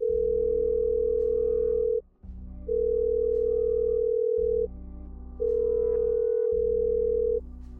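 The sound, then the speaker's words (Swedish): A phone ringback tone from a repeat call to a woman sounds in long steady beeps, three repeating rings with short pauses between, over a low hum, and nobody picks up. “Jag ringer henne igen.”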